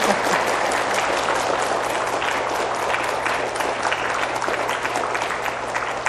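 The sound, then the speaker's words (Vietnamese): Sustained, dense applause from a large crowd at a Buddhist gathering, steady and loud throughout without a break, the clapping blending into a continuous bright wash with no voices standing out. “À, quý vị cho một tràng pháo tay thật lớn ờ, thật dài và nồng nhiệt hơn nữa đi thật dài nữa”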